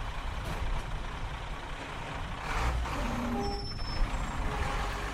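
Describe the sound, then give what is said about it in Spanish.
A garbage truck rumbles along the street with a steady, loud low engine drone, a few faint tonal squeals and hisses rising over it midway, and no one speaking. “El camión de la basura recorría la calle con su tracateo característico.”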